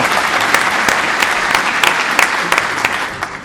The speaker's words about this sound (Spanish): Me, gustó esa divagación, ese comentario, por tanto voy a darte un aplauso. A ver. ¿O no? Pues no, no era aplauso, tío, era este el aplauso, me equivoqué, me equivoqué. Ahí sí, bravo.